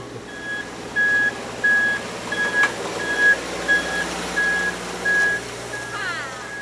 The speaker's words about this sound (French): Et le bruit que l'on entend, c'est un feu de recul pour prévenir les gens. Mais bien entendu, beaucoup de gens euh, se fichent euh, du bruit.